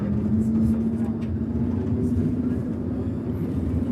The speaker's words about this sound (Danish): Og nu sidder jeg så i sporvognen i Genève.